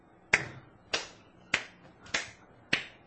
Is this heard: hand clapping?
yes